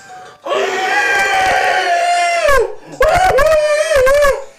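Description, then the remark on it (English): A person vocally imitates a woman screaming as she burns and runs through a shop: a long, loud, sustained high shriek, a brief break, then a second wavering scream that rises and falls. “and she's screaming and she's on fire, running through the shop.”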